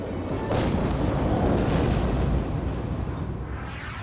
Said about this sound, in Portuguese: A capital do Líbano, Beirute, foi atingida no início da tarde, no horário do Brasil, por uma violenta explosão. O mundo que foi surpreendido nesta terça-feira. O tremor pôde ser sentido a 200 quilômetros de distância.